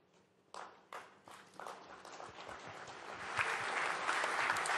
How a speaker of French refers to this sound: Et là, il y a des applaudissements.